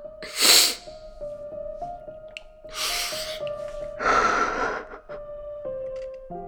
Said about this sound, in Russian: А о чем сейчас ваши слезы?